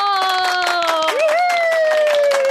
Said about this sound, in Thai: ถ้าพร้อมแล้วขอเสียงตบมือให้กับโบโบ